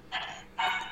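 A dachshund barks twice in quick succession, two sharp, moderately loud yaps separated by a brief pause, with no talking over them.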